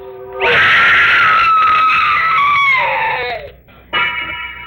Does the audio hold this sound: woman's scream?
yes